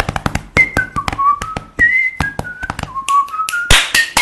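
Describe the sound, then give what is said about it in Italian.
A short intro jingle with a bright whistled melody gliding between sustained notes, backed by crisp, rhythmic tapping percussion. Loud, with no talking. “E allora, allora, sigla.”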